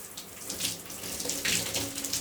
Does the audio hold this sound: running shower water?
yes